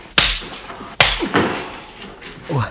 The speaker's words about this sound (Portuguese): Porque o Ray Charles escutou isso aqui, ó. Dois tapas, né?